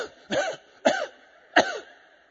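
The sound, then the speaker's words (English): A person gives three short, harsh coughs in a halting rhythm, voicing a car engine sputtering after being filled with gas at a gas station. The coughs are fairly loud, with brief quiet gaps between them and no talking. “And I noticed when I took off, my car seemed like it was coughing.”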